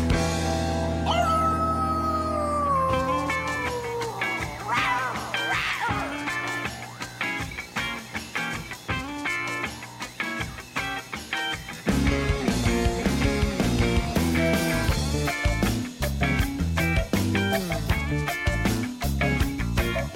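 A song plays loud and continuous, opening with a long wolf-like howl over sustained music before a fuller band with a driving, steady beat kicks in about halfway through.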